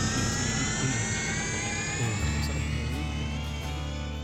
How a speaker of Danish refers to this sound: Med den lyd af en fake tidsmaskine